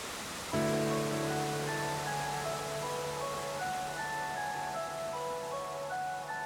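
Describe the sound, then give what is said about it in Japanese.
Steady, continuous hiss of steam rising from a boiling 98-degree hot spring on a winter mountain by the Oyasu gorge of the Minase River, Yuzawa, Akita, Japan, broad and rushing throughout, with sustained musical tones entering shortly after the start and playing underneath. “秋田湯沢水瀬川の急流が作り出したお安橋岩伝いの階段を降りていくとシューシューと湯気の音がしてくる98度の熱湯が冬の山に命の音を響かせる”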